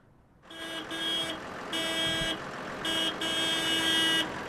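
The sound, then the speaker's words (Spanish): Several vehicle horns honk in overlapping blasts, some long and sustained, over a steady low rumble of idling engines: a traffic jam of stopped cars, trucks and nearly 200 tractors in a farmers' union protest convoy on the N121 near Arre, Navarra, Spain. “Bocinas, coches y camiones parados, ruido del motor encendido pero en ralentí, es el sonido del cabreo de los sindicatos que se sienten ahogados por una política agraria que no compensa la subida de precios, dicen,”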